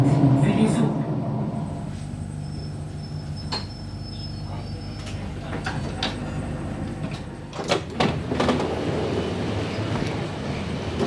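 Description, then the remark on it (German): A crowded passenger train rumbles steadily with a low mechanical drone, then a burst of clattering and hissing suggests it halting and doors sliding open. Faint voices murmur in the background. “Der Zug ist recht voll.”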